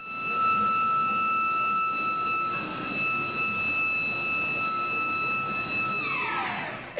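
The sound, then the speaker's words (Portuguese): A loud, steady bakery siren holds a single high, piercing tone for several seconds, then winds down with its pitch sliding lower at the end, over faint background rumble, announcing a fresh batch of cheese bread coming out of the oven. “A sirene não falha.”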